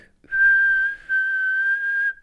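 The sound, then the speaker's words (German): A person whistles a steady, high, shrill tone imitating an old whistling kettle with water coming to the boil, held for about two seconds with a brief dip in the middle. Fairly loud, no talking. “Also wenn das Wasser kochte, hat das Ding gepfiffen.”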